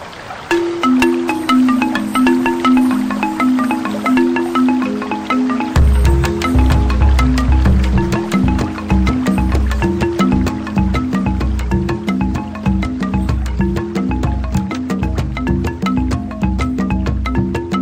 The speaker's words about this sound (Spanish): llegamos al momento de nuestro segundo ah, pausa musical y vamos a escuchar … de …